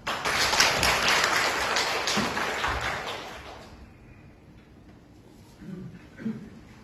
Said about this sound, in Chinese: 接下来，让我们用热烈的掌声，有请中国科学院院士、山东农业大学特聘教授殷向初先生讲话。